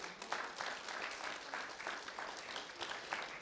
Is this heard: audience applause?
yes